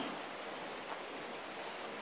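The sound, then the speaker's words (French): Steady rain falls in a continuous, even hiss, with fine drops pattering across a surface throughout. No voices, just the soft, unbroken wash of rainfall. “Et s'il fait chaud, Évidemment, cette séance d'hypnose, accompagnée par la pluie, vous aidera à oublier cette sensation de chaleur.”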